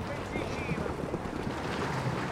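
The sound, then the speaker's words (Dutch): A small inflatable boat's motor drones steadily as it sails into the small harbour of Ginostra carrying packages of food and medicine. A continuous low rumble with water wash, while faint, indistinct voices murmur underneath. “En als we nu die kleine haven binnenvaren, helpt iedereen.”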